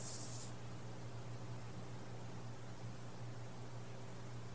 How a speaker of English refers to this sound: these sounds here, heard here arising from the creek